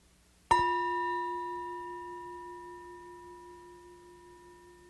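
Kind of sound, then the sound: signal or alarm, meditation bell ringing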